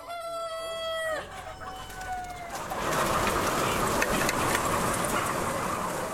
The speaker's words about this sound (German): Bei Licht kommt Unruhe in den ansonsten recht dunkel gehaltenen Stall. Bei zu viel Tageslicht werden die Hähne aktiv, rennen hin und her, stapeln sich übereinander.